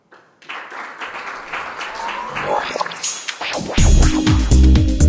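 An audience breaks into sustained applause, many hands clapping in a dense, steady patter that swells louder, with deep resonant voices or tones rising under the clapping near the end.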